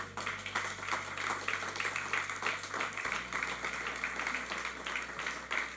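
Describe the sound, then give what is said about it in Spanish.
A church audience applauds steadily for several seconds at the end of a sermon, giving an applause to the Lord, a dense, even wash of many hands clapping at once, with a low electrical hum running underneath and no voices. “Si Dios te habló en este mensaje, dar un aplauso al Señor.”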